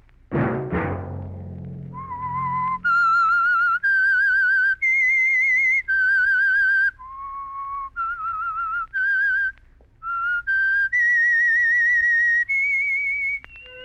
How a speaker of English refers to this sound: Let that whistle be your signal for the Signal Oil program, The Whistler, each Monday at 9, brought to you by the Signal Oil Company